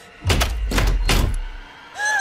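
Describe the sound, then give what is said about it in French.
A door lock bolting with heavy thunks, three solid mechanical clunks in quick succession, followed by a short electronic beep tone at the end. “Non, mais non Porte verrouillée.”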